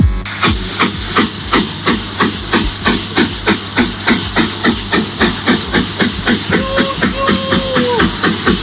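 An old toy steam locomotive chuffs in a steady, rapid rhythm of loud hissing bursts as it lets off steam, with a brief whistle-like tone rising near the end; no one speaks.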